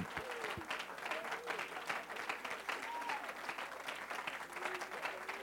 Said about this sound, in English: In Jesus' name, why don't you give the Lord another great hand clap of praise? In Jesus' name. In Jesus' name. Come on, why don't you clap your hands with an expectation?